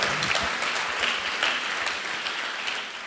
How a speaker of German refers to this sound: Nochmal einen Applaus für den yeah. Campus in Hamm.